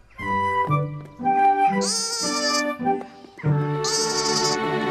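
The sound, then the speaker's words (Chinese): A lamb bleats repeatedly in a string of loud, quavering, high-pitched cries, some short and some drawn out, with brief pauses between them and no talking. It is a little lamb found by Lilly in Fireman Sam, whose cries James mistook for a crying baby. “羊羊宝贝”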